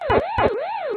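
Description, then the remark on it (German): Pac-Man arcade game being played: a synthetic siren-like tone sweeps up and down in a steady wail, punctuated by two quick buzzy chomping bursts, loud with no talking. “Zurück in die Uhrzeiten des Internets, zurück zu Pac-Man.”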